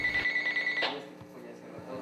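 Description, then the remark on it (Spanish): A shrill electronic earthquake alert tone rings from a cellphone, from a cellphone-based seismic alert system developed at the Instituto Politécnico Nacional; a steady high-pitched warning sounds loudly for under a second, then trails off into quieter tonal bleeps. “Este sistema puede enviar un aviso vía celular hasta 200 segundos antes de que se registre el terremoto.”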